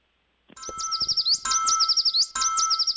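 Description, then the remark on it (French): Bright, rapid bird chirps and tweets repeat in three quick bursts, loud, like a short sound-effect jingle with no voices. “Et un, autre tweet, c'est chaud aujourd'hui.”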